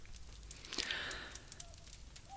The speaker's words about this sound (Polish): Bardzo aborygeńskie e, zakończenie naszej rozmowy, bo aborygeni bardzo lubią przy ognisku siedzieć i milczeć. No to pomilczmy i posłuchajmy tego ogniska.